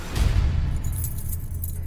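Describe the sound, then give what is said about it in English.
A large ring of about 30 building keys jangles and clinks, a continuous metallic rattling with bright high-pitched chimes over a low rumbling background, no talking. “As principal, Frank DeAngelis had about 30 keys to the building.”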